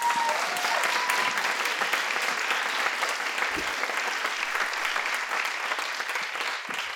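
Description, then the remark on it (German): Audience applause for a guest just introduced to the audience, a steady wash of many hands clapping that holds at an even loudness for several seconds before easing off slightly at the end, with no voices over it. “Ein kleiner Applaus für Shannon.”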